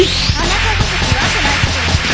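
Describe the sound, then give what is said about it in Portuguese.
Sharp cracks of a whip from the Republic of Congo snap out about five times at uneven intervals, loud, over a dense, hissing background of noise. “E agora o meu chicote da República do Congo entrará em ação e vem o especial whip”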